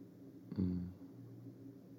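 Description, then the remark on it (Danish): A heating furnace runs in the morning, giving off warmth, with a steady, low droning hum throughout, fairly quiet and constant, with a brief louder low murmur about a quarter of the way in. “og fyret kører og varmer mig op.”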